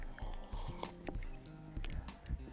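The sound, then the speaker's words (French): Crunchy chewing of a first bite of food, with a scattering of sharp, irregular crackles as the food is bitten and ground, fairly quiet overall, with faint low murmuring in the background. “alors, première bouchée, qu'est-ce que t'en dis Me vexez pas.”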